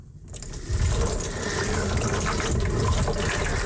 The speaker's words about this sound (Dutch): Nu, door het gieten van dit water is dit proces onderbroken. Dus hij is niet meer lichtgevoelig.